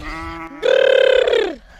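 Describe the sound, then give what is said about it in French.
A human voice calls out in a drawn-out, wavering bleat-like tone, starting low and then rising into a louder, trembling note that sags at the end, calling ewes to make them come. “est-ce que toi aussi tu arrives à faire pour appeler les brebis”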